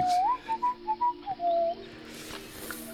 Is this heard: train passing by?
no